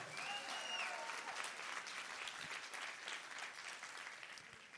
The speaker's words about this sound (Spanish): Alguien que esté aquí, que le dé una, alguien que esté despierto, que le dé un aplauso al Señor. Alguien que crea que es creación de Dios, que le dé un aplauso al Señor.